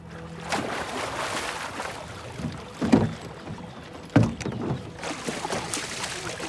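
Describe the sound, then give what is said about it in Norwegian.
A small rowboat carrying a priest and his two young sons grinds and scrapes onto a sandy shore as a man jumps out, with a couple of louder crunching bumps, surrounded by a steady rush of water and light wind noise. “Egede hopper ut av båten idet den skraper mot sanden.”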